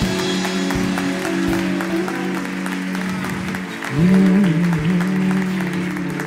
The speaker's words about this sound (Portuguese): Aplauda Ele bem forte.